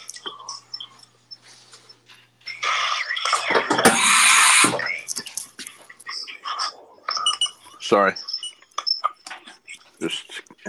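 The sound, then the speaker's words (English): Glassware clinks and clatters in scattered, irregular bursts as dishes are unloaded from a machine, with a louder rushing clatter partway through and faint whispery voices. “emptying my machine while we're waiting.”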